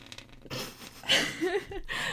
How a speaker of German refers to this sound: Was geht eigentlich weiß, mit deinem Stift und deiner die, Nudelpackung? Die Nudelpackung macht voll Geräusche, wenn man drauf malt.